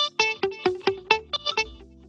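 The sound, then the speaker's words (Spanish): A short electric guitar riff of about eight quick plucked notes, played dry without a delay effect and with no echo trailing behind, clear, ending on a low held tone. “Si yo a esa weá le saco, le saco el delay, suena”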